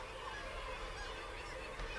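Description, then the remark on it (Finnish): A dense, continuous chorus of thousands of seabirds calling at once from a cliff colony, white-breasted birds sitting side by side on the ledges, honking and squawking calls overlapping into a steady, loud wall of sound. “Tuhansin, kymmenin sadoinkin tuhansin ja miljoonin saattaa samalla kallion rinteellä lintukotolaisia majailla.”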